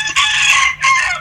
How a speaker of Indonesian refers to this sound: Ya teman-teman itu adalah suara ayamnya Gilang.